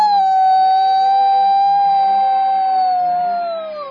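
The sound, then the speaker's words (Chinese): A storyteller's voice imitates a rooster crowing "oh oh oh" in the children's story The Rooster Who Couldn't Wake Up (睡不醒的公鸡), with one long, loud, high-pitched note that holds steady for several seconds, then dips and trails off at the end. “你听那嘹亮高昂的“哦哦哦”，”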